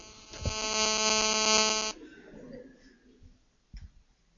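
A loud, steady electrical hum on a Mária Rádió broadcast, caused at the broadcast end rather than by listeners' receivers, buzzes for about a second and a half, then cuts off abruptly, leaving faint background noise and a brief knock.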